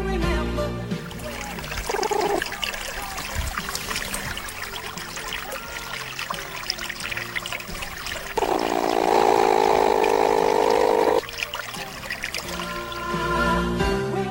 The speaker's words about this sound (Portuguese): Esse é o som de um ornitorrinco, animal símbolo do país, tão conhecido quanto o canguru.